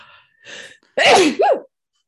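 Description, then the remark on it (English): A loud, wet sneeze: a couple of sharp inhaled gasps, then an explosive, spraying burst with a quick second spurt right after. “That was a wet ass sneeze.”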